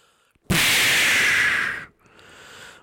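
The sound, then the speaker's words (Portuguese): A smoke bomb effect bursts in with a sudden loud, bright hissing whoosh that rushes steadily for about a second and a half, then cuts off abruptly into a faint lingering hiss. “Bombinha de fumo.”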